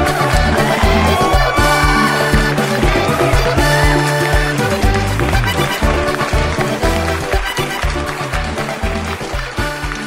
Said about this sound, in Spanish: Cumbia colombiana, chavos.